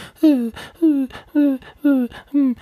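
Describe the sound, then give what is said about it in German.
An adult voice imitates the characteristic whining of a child after an insect sting, in five drawn-out, falling moans repeated in a steady rhythm with quick breaths between them, fairly loud. “Und das ist bei Apis dieses ganz charakteristische Weinen oder Jammern.”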